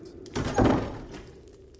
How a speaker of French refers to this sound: et ferme la porte.